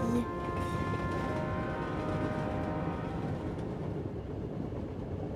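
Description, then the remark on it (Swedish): A train slows into a station platform, rumbling steadily with thin squealing brake tones that gradually fade, under a continuous low clatter. “Tåget saktade in på perrongen och utanför vimlade det av älvor som susade förbi.”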